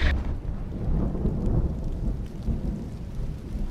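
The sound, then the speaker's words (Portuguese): Heavy rain pours steadily with a deep, rolling rumble of thunder underneath, a dense continuous roar that stays loud throughout with no voices, at Morro do Macaco Molhado in Guarujá, Baixada Santista region. “aqui no Morro do Macaco Molhado, no Guarujá, onde chove bastante ainda.”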